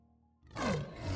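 A single loud lion roar bursts in after a quiet moment, a deep rumbling growl with a falling pitch that fills the short clip.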